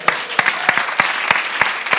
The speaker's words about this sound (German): Könnt ihr ihm mal Applaus geben?